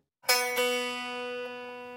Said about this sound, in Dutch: Ook bij een gitaar is dat zo. Als ik enkel een snaar aansla zonder dat daar een klankkast onder zit, dan klinkt dat zo.